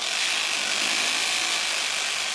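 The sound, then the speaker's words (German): A hammer drill, used by scaffolders to fasten anchors, runs steadily for a couple of seconds, a loud, continuous high-pitched grinding whine with a gritty buzz and no pauses or voices. “Den Schlagbohrer etwa brauchen sie zum Befestigen von Verankerungen.”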